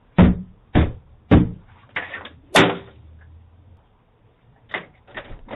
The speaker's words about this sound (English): little boy you better get your ass from off my porch beating on my door like this i will call the police you need to leave don't you ever be on my goddamn door like that.